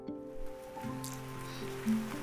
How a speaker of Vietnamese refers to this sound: ơ trời mưa rồi các bạn có nghe tiếng mưa không đang định lấy bản thân mình ra làm ví dụ thì trời lại mưa